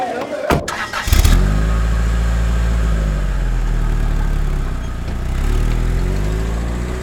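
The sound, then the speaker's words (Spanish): The engine of a car in Chancellor Angela Merkel's motorcade in Brussels, 2012, at 7 in the morning cranks and catches with a brief clatter, then revs up loudly, settles into a steady rumble, and swells into another rev near the end. “La canciller Angela Merkel se sube el auto de su comitiva con cara de cansancio.”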